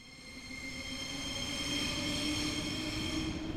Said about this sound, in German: Hinter mir höre ich das typische Quietschen der Ringbahn. Sie steht nie still.